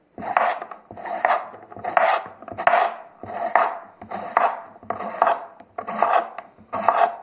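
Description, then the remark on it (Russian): A knife slices peeled potatoes into very thin, long strips in a steady rhythm of about ten rasping, scraping strokes, each a short gritty swish, with no talking. “И для этого блюда, как я уже рассказывала, нам картошку нужно нарезать на очень тонкую длинную соломку.”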